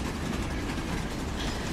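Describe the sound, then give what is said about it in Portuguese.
A train rumbles steadily along the rails, a dense, continuous low roar with a hissing wash on top, fairly loud, with no voices over it. “Falta quantos dias para o trem passar?”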